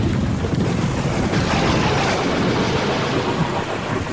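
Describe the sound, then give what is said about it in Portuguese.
A steady, dense roar of heavy rain falling without stopping, with deep rumbling thunder underneath, loud and continuous for the whole stretch, with no voices. “Durante 40 dias e 40 noites, choveu sem parar.”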